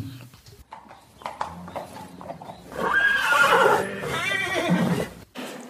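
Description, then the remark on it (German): Hooves of a large grey Holsteiner show-jumping horse clop along in a quick, uneven rhythm, then the horse lets out a loud, drawn-out whinny that rises and trembles before fading, with a few more hoofbeats near the end. “Ähm, er ist das, was ich mir auf jeden Fall un immer unter einem Holsteiner vorgestellt habe. Groß, Schimmel, springgewaltig.”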